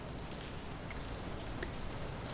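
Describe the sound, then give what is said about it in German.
Steady rain patters on a hard surface, a dense, continuous hiss of droplets with occasional sharper taps standing out, even in loudness throughout. “Jetzt regnet's.”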